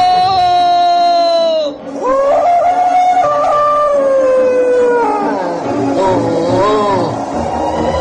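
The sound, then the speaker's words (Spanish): A wolf howls loudly in long, wavering notes that rise and fall, with several howls overlapping into a continuous chorus for about eight seconds. “¡Ahora sí es de verdad! ¡Viene el lobo! ¡Se come las ovejas!”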